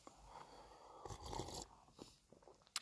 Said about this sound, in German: Ich schlürfe nochmal meinen Tee, der hat jetzt gerade die richtige Temperatur und ich liebe das. Ich hoffe, ihr, ähm, ihr verzeiht mir das Schlürfen, aber ich finde es ganz gut. Ah, herrlich.